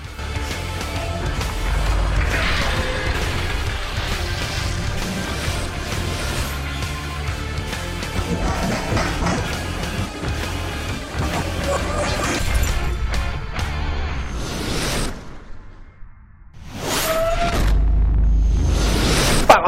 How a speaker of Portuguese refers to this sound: Vamos falar disso então aí hoje, mas antes, toca a abertura aí.